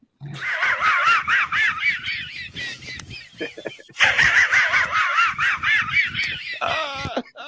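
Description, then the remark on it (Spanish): A Hanna-Barbera cartoon dog's wheezing snicker laugh: rapid, breathy, raspy chuckles in two loud bursts separated by a brief pause, with a short squeaky tail at the end. “la risa del pulgoso”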